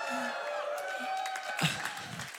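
An audience applauds steadily, a dense wash of clapping mixed with cheering and scattered voices, holding at a fairly even level for a couple of seconds.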